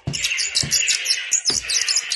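A sparrow that has wandered into a studio chirps rapidly and continuously, bright high tweets tumbling over one another, with a few soft low thumps underneath and no voices.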